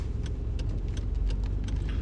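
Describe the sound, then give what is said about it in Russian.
Steady low rumble of a car in motion, heard from inside the cabin, with engine and road noise throughout and small ticks and rattles scattered over it, as the car drives around a crash of several cars. Nobody speaks. “Сейчас, ребятки, я объеду.”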